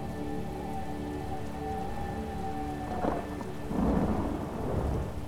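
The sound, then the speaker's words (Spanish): A thunderstorm with steady heavy rain and deep rumbling thunder that swells and rolls in the second half, with no voices present. “los truenos nos alteran.”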